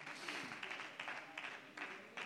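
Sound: audience clapping hands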